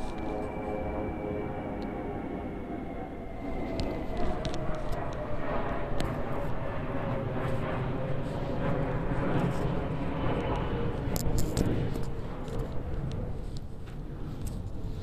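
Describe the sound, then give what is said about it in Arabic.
A loud, sustained roar of airplane engines at an airport fills the whole recording, a broad rumbling drone that swells slightly midway, with no voices over it. “معلش ده ده كان صوت الطيارة لان انا في المطار دلوقتي هسافر ان شاء الله”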